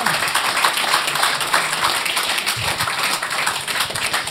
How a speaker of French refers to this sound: Là, ils sont en train d'applaudir ton courage.